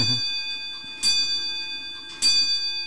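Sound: clock chiming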